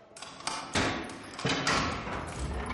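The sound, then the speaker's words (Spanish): A prison cell door is opened by a prison officer, with a series of heavy metallic clunks and thuds, several sharp knocks followed by a broad, lingering rumble and scrape, with no voices. “Un funcionario abre la puerta de la celda.”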